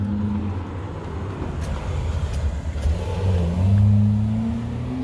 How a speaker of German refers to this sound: Noch ein bisschen Treppe und gerade ist die Polizei vorbeigefahren.